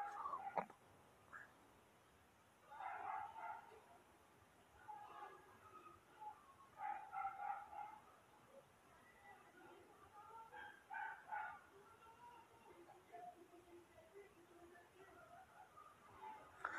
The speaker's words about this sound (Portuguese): Porra, que chato esse cachorro